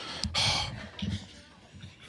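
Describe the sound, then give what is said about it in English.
A woman breathes heavily and laboriously at a hospital: a loud, rushing breath followed by a couple of shorter, raspy gasps in an uneven rhythm, with no talking. “She's breathing hard, huh?”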